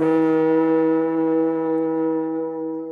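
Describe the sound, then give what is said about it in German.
A horn is blown in one long, loud, steady blast, a low buzzing tone rich in overtones that holds for about three seconds and fades only slightly at the end. “Weil irgendeiner ins Horn trötet.”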